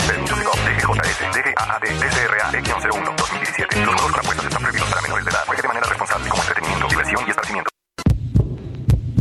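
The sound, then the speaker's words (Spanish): A deep, throbbing heartbeat pulses steadily beneath a loud, dense wash of noise, then everything cuts out briefly before a few quieter low thumps return. “¿Escuchas? Es el corazón morado y amarillo de todos los mexicanos.”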